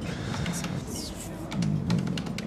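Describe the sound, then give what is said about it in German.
Quick, uneven keyboard typing clatters in the background, a scattering of sharp key clicks over a low murmur of voices. “Man hört das Geklacker im Hintergrund vielleicht.”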